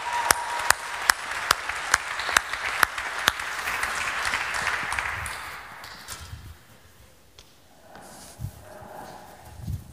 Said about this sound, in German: lass uns ihm einen großen Applaus geben